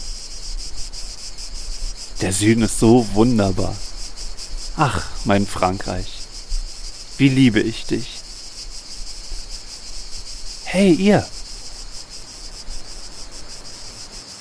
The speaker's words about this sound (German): Hört ihr den Wind? Hört ihr die Zikaden?